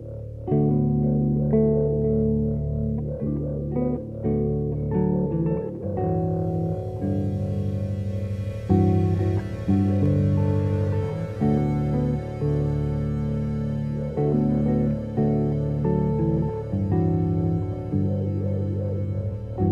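A song plays: layered, sustained harmonic chords shifting in a steady rhythm, washed in chorus and echo-like effects, holding a full, even loudness throughout with no talking over it.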